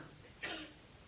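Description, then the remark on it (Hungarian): A single short sneeze bursts out sharply, a quick airy blast lasting about a quarter second before fading back to faint background hiss. “egészségedre.”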